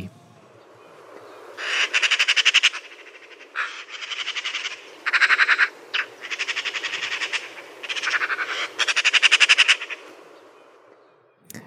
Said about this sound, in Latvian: Protams, ka šī ir žagata. Žagatas esot lielas pļāpas. Katru reizi, kad tās lido viena otrai garām, tās sāk vicināt biežāk un spēcīgāk spārnus un skaļi žadzināt.